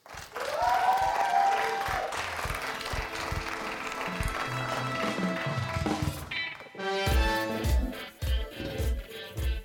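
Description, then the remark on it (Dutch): An audience at a Student Night claps steadily in a dense, continuous wash of applause for a performer's exclusive acoustic soul set for about six seconds, then it fades as music begins with rhythmic low notes and sustained tones. “Mag ik een daar een applaus voor”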